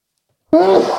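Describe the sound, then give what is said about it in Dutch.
A single loud sneeze bursts in suddenly after half a second of silence, with a voiced, drawn-out 'choo' that carries to the end. “Gezondheid, vriend.”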